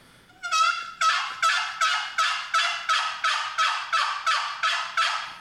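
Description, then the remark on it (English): A wooden box turkey call, its chalked paddle slid to the side without pressing down or lifting, rasps out a steady run of about ten loud hen yelps like an old hen, evenly spaced after a longer opening note, with no talking, in a fairly small room. “That sounds that sounds dynamite, and it sounds yeah. just like an old hen.”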